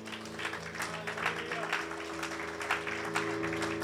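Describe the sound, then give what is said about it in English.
A church audience applauds steadily as a clap offering to God after a prayer, dense overlapping clapping at an even level, with a sustained low organ-like tone humming underneath throughout. “Let's just, let's just give a clap offering to God.”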